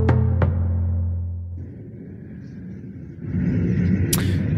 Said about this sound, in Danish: den rumlen, vi hører her i baggrunden, det er øh, ifølge iransk statstv øh, lyden af de missiler, der natten til tirsdag blev affyret mod amerikanske baser i Irak. Blandt andet den her luftbase Ain al-Assad, hvor også øh, danske soldater holder til.